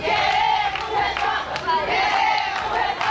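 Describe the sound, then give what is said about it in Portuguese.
A crowd of women at a protest, displaying placards, shouts protest slogans together, their loud, high-pitched voices rising and falling in a steady chanting rhythm without pause. “Várias mulheres estiveram no ato e exibiram cartazes e gritaram palavras de ordem no local.”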